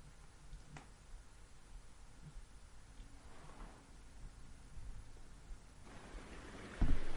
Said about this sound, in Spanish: con un sonido del mar que nos, nos caracteriza a nosotros que vivimos en La Serena, en la región de Coquimbo